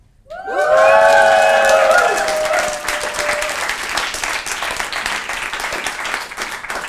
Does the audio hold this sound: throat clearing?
no